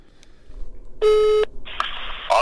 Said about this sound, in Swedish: Han eh, har sett matcherna och vi, vi ringer till honom och ser vad han har att säga.